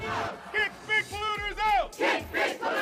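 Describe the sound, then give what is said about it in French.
Environmental activists at the entrance of the COP shout protest slogans against big polluters together in loud, rhythmic bursts, several voices rising and falling in repeated chant-like cries. “Les militants écologistes ont donné de la voix à l'entrée de la COP, impossible d'ignorer leurs cris.”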